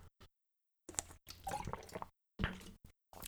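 Wet sipping and swallowing noises from someone drinking water, a few short slurping bursts separated by brief silences, with no talking.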